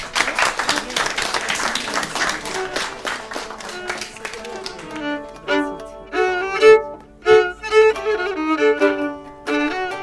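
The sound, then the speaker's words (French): A burst of audience applause, many hands clapping in a dense, steady patter for several seconds, then fading as a voice takes over. “Euh, on peut les applaudir.”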